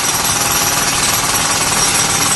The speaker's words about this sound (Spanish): Espera, espera que me alejo, me un poco. A ver, un poco el martillo pilón, ¿no? Sí, sí, pues me he alejado un poco para hablar contigo y también para que la audiencia me escuche.